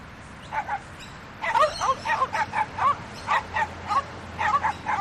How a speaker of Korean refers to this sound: 요란한 소음과 열기, 먼지, 혼란 속에서 두 마리의 개는 쉬지 않고 지저댔다.